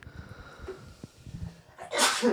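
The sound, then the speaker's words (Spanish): A single sharp sneeze bursts out at the end, loud and breathy, after a couple of seconds of quiet, low background murmur. “Salud. Perdón, es que soy alérgico a la bullshit.”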